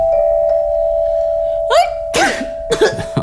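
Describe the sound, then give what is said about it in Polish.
A sneeze caused by a lot of dust, a breathy voiced build-up followed by sharp, noisy bursts, then another short burst, all over a steady electronic hum. “Na zdrowie.”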